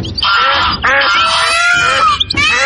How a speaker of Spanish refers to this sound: Había cientos de pájaros en su cabello y no paraban de discutir.